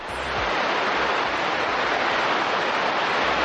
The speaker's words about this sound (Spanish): es el sonido concretamente de una llamarada solar